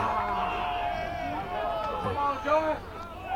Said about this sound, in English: as you could hear in the background, the Belmont fans thought they had a strikeout.